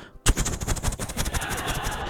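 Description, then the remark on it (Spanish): A voice imitates a helicopter rotor with a rapid, steady train of breathy thumps, fairly loud, starting abruptly and continuing for about two seconds. “Se parece más, es un helicóptero.”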